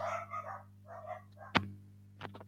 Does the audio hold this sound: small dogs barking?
yes